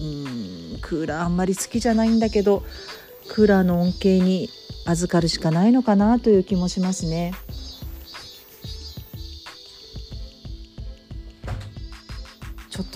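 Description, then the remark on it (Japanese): Cicadas outside drone steadily during hot summer weather, heard through a closed door, a continuous high-pitched buzz that sounds muffled, running beneath a woman talking and carrying on through her pauses. “セミの声がかなりうるさかったので扉を閉めましたがそれでもまだうるさいかもしれませんがあのしっかり声張ってお話ししますので最後まで聞いていただけたらと思います。”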